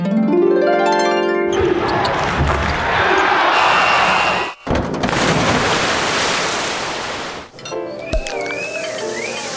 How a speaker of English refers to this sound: Yep, I bought a sound effects machine.